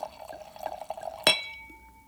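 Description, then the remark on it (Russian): Still wine from a newly opened bottle pours into a glass during a New Year tasting, with a steady, bubbling gurgle, then a single sharp glassy clink rings out and leaves a clear tone fading away. No one speaks. “Нет, и вино на самом деле тоже прекрасно звучит.”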